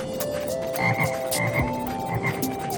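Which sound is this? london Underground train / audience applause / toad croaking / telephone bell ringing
toad croaking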